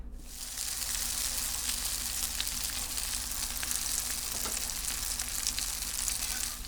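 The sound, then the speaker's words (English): Breaded cutlets, shaped from a puree and dredged in egg and breadcrumbs, fry in a pan with a steady, dense sizzle and occasional sharp pops and crackles, fairly loud, continuing without a break and with no one talking. “Um, and then I'm gonna dredge it in egg and then in breadcrumbs, and then we're gonna fry them up.”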